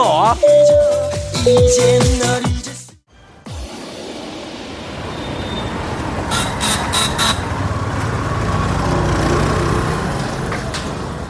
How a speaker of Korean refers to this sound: 인도의 뉴델리 시내에 도착했습니다 하이 하이 하이 하이 지금 오토바이와 자동차 사람과 소에다가 버스와 택시가 마구 엉켜가지고 인도와 차도 구분이 없이 아래 예, 조심해 조심해 아무데 막 다니고 있습니다.